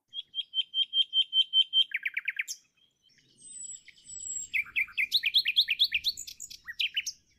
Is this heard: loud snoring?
no